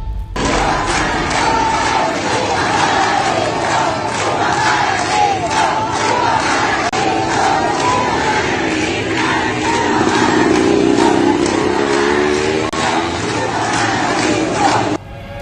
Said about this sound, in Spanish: Una iglesia cristiana en Cienfuego. Un coro de ciento y tantas mujeres gritando, cantando, coreando Cuba para Cristo. Esto nunca se ha visto.